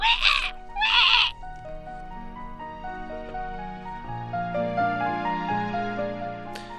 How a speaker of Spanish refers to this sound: El cerdito pataleaba y chillaba.